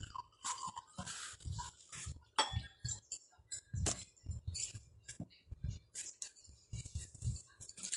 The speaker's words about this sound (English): So let me pour my wine while she uh, go back live.